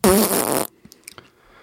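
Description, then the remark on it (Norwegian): A person makes a loud, buzzy raspberry-style fart noise with their mouth, lasting just over half a second, followed by a few faint clicks and small sounds. “ja, nei, du er flink til å lage sånne prompelyder.”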